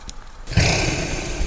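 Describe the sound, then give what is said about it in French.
A reindeer's heavy, rough breath rumbles right up close after a brief quiet moment, one long snorting exhale that stays loud and breathy until the end. “Voilà, bah là je vous fais entendre euh, la respiration d'un renne qui est juste à côté de moi.”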